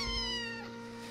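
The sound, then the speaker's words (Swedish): A single drawn-out cat meow, clear, with a strong harmonic tone that slowly fades over about a second, heard on its own without any talking. “Och katterna förstås.”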